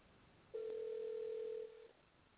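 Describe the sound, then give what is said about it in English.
A single steady ringback tone over a telephone line from an outgoing call to a woman who does not answer, one long even ring of about a second and a half that fades away, with faint line hiss and no voices. “and she don't want to answer the phone.”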